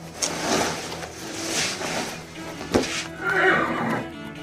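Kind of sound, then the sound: animal, horse neighing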